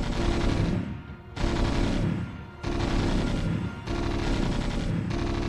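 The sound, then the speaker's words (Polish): A gunfire sound effect plays in the background: loud, continuous gunfire rattles in dense repeating bursts, briefly easing about every second before surging again, like sustained automatic fire filling the whole clip with no voices. “Czy y, wystrzały nie były zbyt głośne?”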